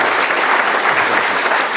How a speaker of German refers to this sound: Applaus